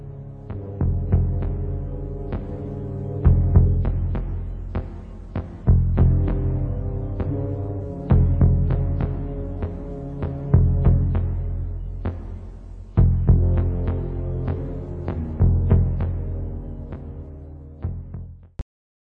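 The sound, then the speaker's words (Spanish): The main theme of the film The Thing plays on its own: a throbbing theme on synthetic instruments, deep, droning bass pulses in a steady, heartbeat-like rhythm, with a swell returning every few seconds, ending abruptly. “el tema central, el main theme de, The Thing, ¿cachai?”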